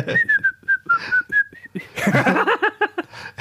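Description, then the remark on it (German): A person whistles a short, wavering melody for about a second and a half, then it breaks off into bursts of laughter. “Ah, ich fand auch, du hast richtig gut gepfiffen.”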